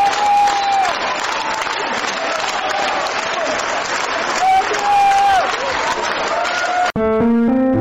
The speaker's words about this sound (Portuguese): uma salva de palmas, pois. Respeitável público! Público! Público!